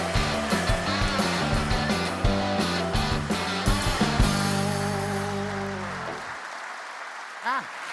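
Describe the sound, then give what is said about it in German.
A large crowd claps steadily over loud, upbeat band music, welcoming Erwin Pelzig. The music stops after about six seconds while the dense applause carries on, with a brief rising-and-falling whistle near the end. “Riesenbahnhof und großer Applaus für Erwin Pelzig.”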